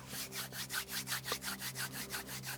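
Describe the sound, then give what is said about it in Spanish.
Palms of hands rub briskly together to warm them before being placed on the eyelids, making a steady series of soft, breathy swishes, roughly a dozen quick strokes in an even back-and-forth rhythm over a low, constant hum, with no talking. “Y ahora frota y suavemente colocarás en tus párpados.”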